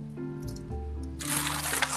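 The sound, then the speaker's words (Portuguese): A phone call line breaking up: a garbled, warbling tone gives way to a steady wash of harsh digital static that fills the rest of the moment, fairly loud. “oi, tá me ouvindo?”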